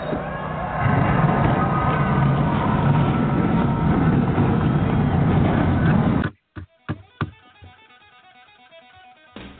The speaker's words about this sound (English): On behalf of General Tire, where anywhere is possible, drivers, Start your engines!